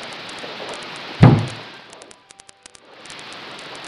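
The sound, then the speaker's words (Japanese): A single hard thump of a hand striking a television set to fix its poor signal reception, heard over steady static hiss; the static briefly drops out with a few faint ticks before returning. “テレビがあらあら電波が良くないのかしらこ、ん、なものこうすれば治るどけ”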